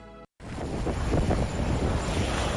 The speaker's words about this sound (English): This is a familiar a sound in Illinois. Cold snap grappling with heavy snowfall while bracing themselves for a significant winter storm